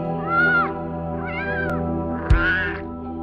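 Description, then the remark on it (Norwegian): A cat, representing Schrödinger's cat, meows three times in fairly even succession, each a clear drawn-out cry, with a soft thump near the last one and a steady low hum underneath; no one speaks. “Dagens vitenskapskuriositet omhandler fysikerens omstridte kjæledyr, som har skapt mye hodebry opp gjennom tida, nemlig Schrødingers katt.”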